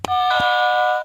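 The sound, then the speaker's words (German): An orange quiz buzzer in a quiz game rings out as a bright electronic chime with a sharp attack and a sustained, steady tone lasting about a second, like a doorbell or school gong. No voices are present. “Wie so ein Schulgong. Oder wie so eine Türklingel.”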